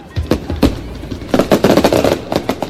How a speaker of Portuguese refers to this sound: Eita, tem até fogo de artifício